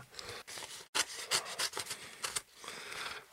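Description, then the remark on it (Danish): What looks like a piece of folded paper rustles and scrapes inside an envelope in a run of short, dry bursts of crinkling and rubbing, fairly quiet, with brief pauses and no talking. “Der er også et, hvad der ligner et stykke foldet papir inde i konvolutten her.”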